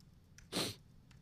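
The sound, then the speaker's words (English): One short, sharp sniffle into a microphone, caused by allergies, a breathy nasal burst lasting about a quarter second, stands out clearly against quiet background hiss with no talking. “sorry for sniffling in the mic.”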